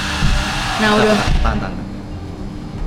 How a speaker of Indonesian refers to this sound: eh, sorry ya audionya bocor kita lagi di kedai kopi juga soalnya